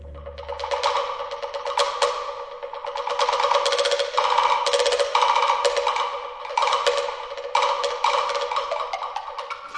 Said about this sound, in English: about maybe three quarters of the way through the piece, um, there's this section again with wood blocks and I think um, some gongs and, and other percussion.